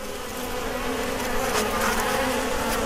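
A dense, steady drone of many honeybees buzzing together inside a just-opened hive crowded with bees, a thick continuous hum with shifting overtones and no voices.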